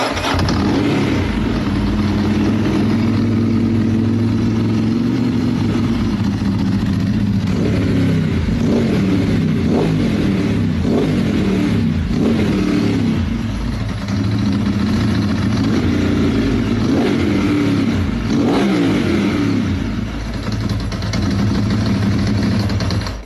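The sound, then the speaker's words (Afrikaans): A Ducati motorcycle engine starts up and idles with a deep, loud, steady rumble, then revs repeatedly in short bursts that rise and fall in pitch. No one speaks. “Maar ek dink wat nou nog meer belangrik is, is uh om te hoor hoe hy klink. So ek gaan nog gou vir julle start hierso dan luister julle gou.”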